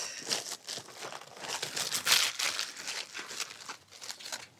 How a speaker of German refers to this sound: Raschel, raschel, raschel, die Spannung steigt.